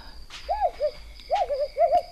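An owl, Albert's owl returned after a long absence to its owl house, hoots in a series of soft, wavering calls, short phrases repeated with brief pauses between them, against a quiet background with a faint steady hum.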